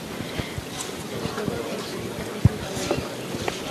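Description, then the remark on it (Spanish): Many bearers' feet shuffle and scrape steadily across the floor of a sanctuary beneath a float carrying a statue of the Virgin under a canopy, a continuous rustling drag with a few sharper knocks, while a faint crowd murmur hangs in the background. “Se escucha el sonido de los costaleros en el suelo del santuario.”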